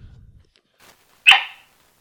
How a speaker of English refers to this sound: Abby, my cattle dog and completely collected co host. Say hi, Abby.